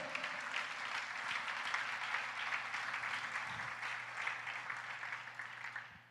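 An audience breaks into sustained applause to the Lord during a church sermon, many hands clapping in a dense, steady wash for about six seconds that stays even in loudness and tapers only slightly at the very end.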